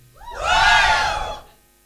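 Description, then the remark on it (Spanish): An audience, counted in to three, lets out a loud, unified shout that swells quickly, holds for about a second, then fades away, with many voices blending into one broad roar. “¿Cuántos pueden gritar? A la cuenta de tres.”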